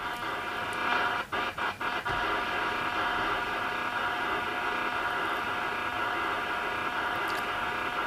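A steady, buzzing radio telemetry signal from a weather radiosonde drones on through static. Its regular hum is a transmission divided into frames, each frame a complete set of data, and is broken by a few brief clicks near the start. No one speaks.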